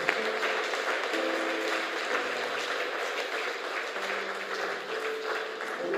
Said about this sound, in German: Lasst uns einmal einen Applaus geben. Halleluja.